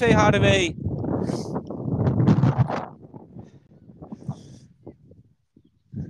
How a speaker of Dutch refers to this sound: Nou, begint hij nu ook eh, weer te waaien, echt als een malle.